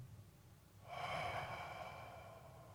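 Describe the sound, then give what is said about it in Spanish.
One long, deep breath rushes in after a quiet start, steady and airy for about two seconds and slowly easing off, during a deep-breathing relaxation exercise. No talking. “exhalando así en esta manera, dejando el cuerpo descansar”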